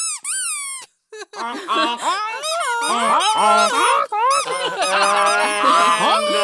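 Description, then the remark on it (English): A voice imitates a goose, letting out a rapid run of loud, nasal honks that rise and fall in pitch and pile on top of one another with barely a pause. “He opens his mouth, but only a honk comes out. Honk!”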